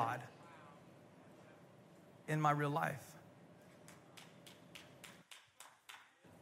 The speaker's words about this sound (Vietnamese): Cảm ơn mẹ đã vỗ tay.